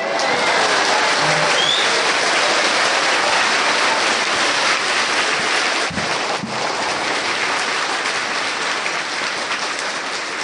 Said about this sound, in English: Thank you. Thank you for your kindness. Even though you heard the story again, you clap like first time. and you laugh like never heard of it before.